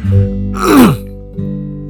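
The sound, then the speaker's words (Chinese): A single harsh, throaty cough, a lingering aftereffect of COVID-19, bursts out mid-clip with a groaning voiced tail that slides downward in pitch, then fades to a quiet low hum. “好啊，你看我今天这一集也还在一直咳嗽，还在一直吸鼻涕，但是其实我已经转阴了，好不好？”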